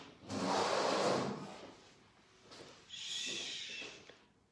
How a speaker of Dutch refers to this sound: Mijn man die komt weer als een olifant hier naar binnen schoppen. Stoelen schuiven. Dat hoor je alles, hè? Elke stap van jou hoor je.